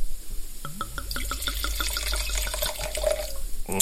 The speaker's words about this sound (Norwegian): Og det er veldig gøy når de bruker én lokal og én internasjonal drue til å lage rosé. Jeg kan helle opp i glasset, skal vi se.